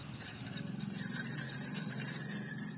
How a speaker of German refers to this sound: Preeti rät, klingende Armbänder zu tragen, damit das Baby hören kann, dass die Mutter da ist.